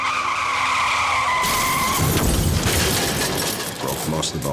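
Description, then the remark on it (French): Tires screech in a loud, sustained skid for over a second, then a sudden crash bursts in, followed by a few seconds of rattling, scraping debris noise, in a serious road accident. “Le propriétaire est mort lors d'un grave accident routier.”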